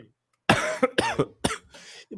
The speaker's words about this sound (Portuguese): e essa gripe me pegou, tá? Eu tô tossindo feito um cachorro